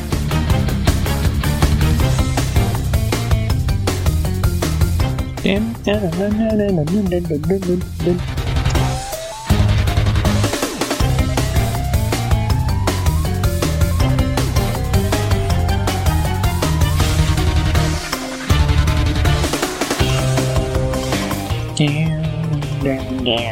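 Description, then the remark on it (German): Loud, driving final boss theme music from a video game, with electric guitar carrying wavering melodic lines and strings over a dense full-band backing, playing continuously with only brief dips in intensity. “Die Gitarre ist einfach immer das Geilste.”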